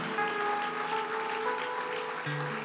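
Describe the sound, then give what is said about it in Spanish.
A church audience applauds steadily for a few seconds in praise of God, a dense wash of clapping filling the space while sustained keyboard-like tones hold underneath. “Dios fuertes ese aplauso de alabanza para el Señor.”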